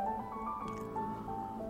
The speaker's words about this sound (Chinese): 哇！布兰奇看到了满满的一锅浓汤，正在咕嘟咕嘟的冒泡呢。